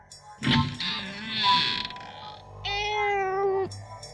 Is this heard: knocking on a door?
no